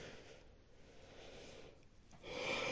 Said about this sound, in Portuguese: Duas bocejadas seguidas. Esse podcast é tão chato que eu bocejo enquanto eu tô fazendo ele. Não é a audiência que boceja, sou eu mesmo.